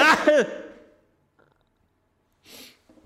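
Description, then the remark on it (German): A person sneezes once, a short, breathy, hissing burst that stands alone after a brief pause, following a few voiced, gliding sounds at the start. “Niesen macht auch glücklich, ne?”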